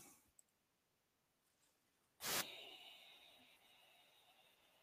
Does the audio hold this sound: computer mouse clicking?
yes